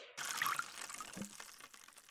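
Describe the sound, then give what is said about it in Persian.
Water pours steadily for about two seconds, a soft continuous splashing hiss with a few gurgling bubbles, as thirsty potted flowers are being watered. No one speaks. “ای وای گلام تشنن بذار برم آبشو بدم بعدم میام بقیهش رو نویسم.”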